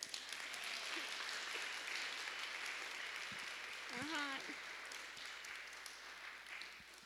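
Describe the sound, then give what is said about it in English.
Sustained applause from an audience giving another round for performers who had been practicing, a dense, even patter of many hands clapping throughout, with a brief harmonic vocal sound, like a short call or cheer, rising above it midway. “Don't they need another applause?”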